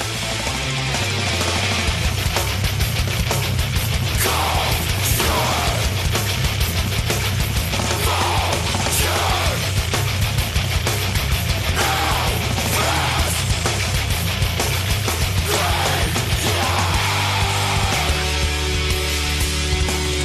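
Loud, dense heavy metal plays continuously, with thick distorted guitars, pounding drums and shouted vocals filling the whole stretch at a steady, driving intensity.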